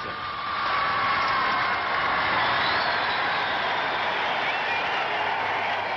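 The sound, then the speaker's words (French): A large British crowd in front of Buckingham Palace on Victory in Europe Day roars and cheers its sovereigns continuously, a dense, steady wash of voices with no single sound standing out, recorded with a muffled, old-time quality. “Devant le palais de Buckingham, elle acclame maintenant ses souverains et ses jeunes princesses.”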